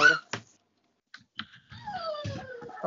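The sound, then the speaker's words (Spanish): A young female puppy, a month and a half old, whines in thin, high, drawn-out whimpers that slide downward in pitch. A few brief clicks and thumps come first, then a short pause. “Ay, perrito. Sí, es una, es una bebé de un mes y medio.”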